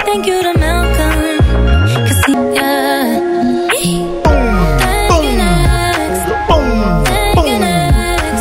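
A polished pop song plays loud and steady, with a punchy bass line sliding down in repeating phrases, layered synths and a sung vocal melody over a regular beat.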